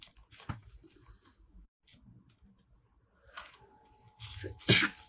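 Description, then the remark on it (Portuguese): A single loud sneeze bursts out near the end, following a few quieter rustles and soft handling noises. No one speaks. “desculpa, espirrei.”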